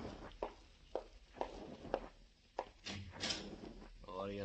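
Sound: door being opened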